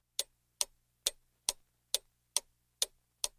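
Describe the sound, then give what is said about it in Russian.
A clock ticks steadily, eight crisp, evenly spaced clicks about half a second apart, clear against an otherwise silent background. “Молчание длилось долго, прерываемое лишь мерным тиканьем часов, которые, казалось, шли медленнее обычного, милостиво давая супругам время прийти в себя.”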